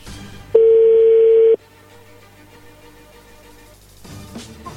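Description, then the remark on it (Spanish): A single steady electronic tone, loud and even, holds for about a second like a phone line's dial or ring tone as a telephone call goes through, then cuts off to a low hum and faint background noise. “le va a llamar el lobo, no hagan ruido ahí, entró la llamada”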